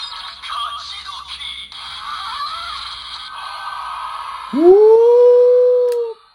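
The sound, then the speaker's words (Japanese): Electronic sound effects from the fruit lock items, including the orange lock, of a Kamen Rider toy transformation belt: a busy stretch of bright buzzing, chiming tones, then a loud synthesized swoop that rises and holds for about a second and a half. “で、まあ今これずっと鳴らしてる音はですね、まあ、オレンジとかいろいろ音が出てるのでわかると思うんですけれどもあの果物のねアイテムの方を今さっきからずっと鳴らしております”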